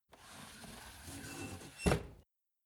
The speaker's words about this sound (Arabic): سأغلق نافذتي بسرعة